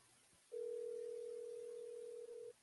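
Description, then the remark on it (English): A steady telephone dial tone holds one unbroken pitch for about two seconds, loud, with no voices, then cuts off abruptly. “Oh, anyway, Let's listen to the audio of her fantastic phone call.”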